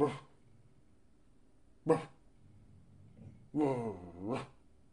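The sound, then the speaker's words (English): Cookie, a dog, rumbles low, breaking into two sharp, separate barks and then a longer, drawn-out grumbling bark, with no one speaking. She is growling at noise in the hallway while the next-door neighbor moves out. “Anyway, Cookie's voicing her displeasure at the noise in the hallway, as she as she does.”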